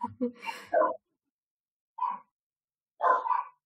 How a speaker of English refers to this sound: They bark like once maybe, and then they then they stop.